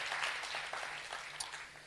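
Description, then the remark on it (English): An audience claps together in a dense, steady wash of many overlapping hand claps, fairly soft throughout, with no voices heard over it. “Come on, clap like you believe that that anointing is increasing on your life.”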